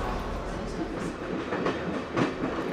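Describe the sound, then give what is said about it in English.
A train rolls along the rails with a steady rumble and a loose rhythm of wheel clacks rising and falling over a few seconds. “We have to hurry to catch the train back to Alpbach.”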